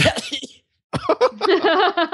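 A person coughs in a harsh burst, pauses briefly, then breaks into a longer run of rough, voiced coughing fits.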